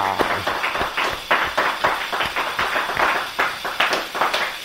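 An audience applauds, a dense, steady patter of many hands clapping at a moderate level for about five seconds, with no voices over it.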